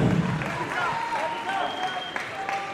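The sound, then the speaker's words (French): A crowd applauds steadily, a dense, even wash of many hands clapping at once, with some voices calling out through it. “Merci de les applaudir encore une fois.”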